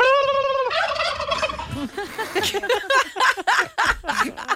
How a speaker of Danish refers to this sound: han siger bare en kalkunlyd, så er de klar med det samme.